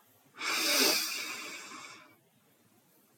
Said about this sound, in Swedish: I din egen takt. Vi andas in igen